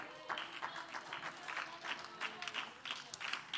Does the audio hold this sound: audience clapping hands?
yes